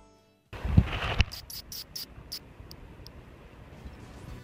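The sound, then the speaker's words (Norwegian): A short rubbery rustle, then a little brown bat, held in a rubber glove while it tries to bite through the rubber, gives a rapid run of shrill, clicking squeaks that thin out into a few scattered chirps over a low rumbling background. “Sånn høres den ut hvis du holder den fast i en hanske mens den prøver å bite seg gjennom gummien.”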